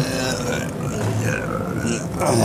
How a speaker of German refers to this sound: Das ist ähm, eine Erklärung, wie ein Elektroauto beim Bremsen Energie zurückgewinnt. Und mein, mein meine Geräuschentwicklung gerade war, weil diese Kurbel wirklich extrem schwer ist.